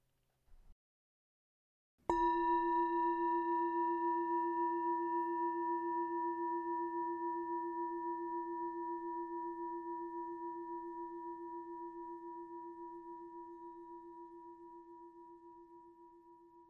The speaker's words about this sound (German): Ich lasse dich noch einige Atemzüge in der Entspannung. Wenn du den Gong hörst, kannst du deine Augen wieder öffnen.